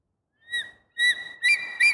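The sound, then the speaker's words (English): A seagull calls three times in quick succession, a clear, high, slightly wavering cry that grows louder with each call, heard on its own with no talking. “That's a seagull, Steve.”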